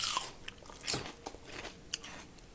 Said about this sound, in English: I like to cut a big, you know, about a two inch long piece of onion, and I like to eat it.